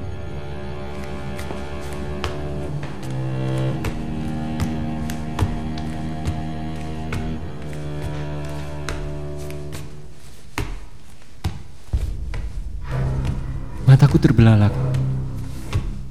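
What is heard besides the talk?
footsteps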